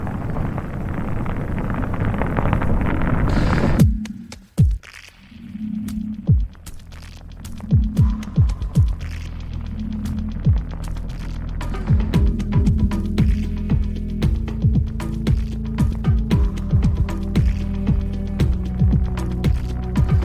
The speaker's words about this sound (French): je fais écouter les génériques pour que les gens se fassent leur propre avis là-dessus. Voilà, sachant qu'on l'entendra très peu de notre côté.